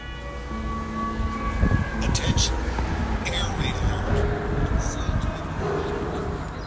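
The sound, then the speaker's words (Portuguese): An air raid siren warning of air attack danger wails over the centre of the city of Odessa with a steady, sustained tone, mixed with traffic rumble and indistinct voices and street noise in the background. “Assim que lá cheguei, soou a sirene.”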